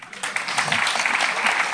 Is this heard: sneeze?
no